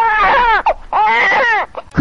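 A crying sound effect: two long, loud wailing sobs with wavering pitch, each trailing off into short whimpering gasps, close and alone with no talking.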